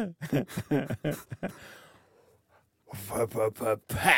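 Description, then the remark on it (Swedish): A voice imitates a mechanical, motor-like digital jingle meant as the sound of a pear ice cream, in rhythmic pulsing bursts, trails off into a breathy fade and a short pause, then resumes the vocalized tune, fairly loud. “Alltså det låter så, alltså, fast det, min röst är mer som en motor då i början. Alltså, det, det är ett ljud, det är ett digitalt ljud.”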